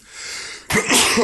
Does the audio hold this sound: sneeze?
yes